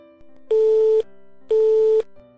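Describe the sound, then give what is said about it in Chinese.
A phone's hang-up tone: two loud, steady beeps, each about half a second long and evenly spaced, at a fixed mid-range pitch, with only a faint hum between them and no voices. “对方已经挂掉了电话。”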